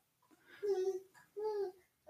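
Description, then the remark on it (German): A baby boy almost four months old babbles in two drawn-out, sing-song vocal bursts with short pauses between, clear, with no adult talk over it. “Kleiner erzählt, ne?”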